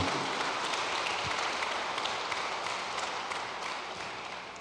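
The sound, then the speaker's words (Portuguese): A church crowd applauds for Jesus steadily, many hands clapping in a dense, continuous wash that holds strong throughout and tapers off slightly at the end, with no voices. “Dê mais um poderoso aplauso para Jesus, querido.”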